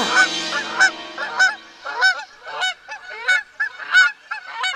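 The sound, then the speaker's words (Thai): A goose honks over and over in a steady series of loud, nasal calls, about a dozen in under five seconds, with no talking over it; the goose is starting to chant a rather long prayer. “ห่านตัวหนึ่งก็ได้เริ่มต้นสวดมนต์มัน ได้สวดบทที่ค่อนข้างยาวว่า”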